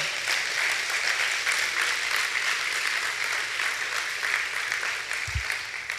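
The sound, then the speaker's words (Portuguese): A large crowd claps together for the Lord and his word in steady, dense applause that holds at an even level for several seconds, a continuous wash of hand claps and no speech. “Se você pode, aplaudir o Senhor pela palavra dele.”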